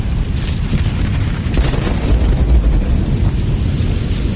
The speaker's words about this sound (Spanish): No volteé a ver la explosión.